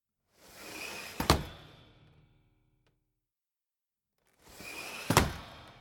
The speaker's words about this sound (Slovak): Buchotal oknami, otváral a zatváral dvere, škrabotal a klopotal.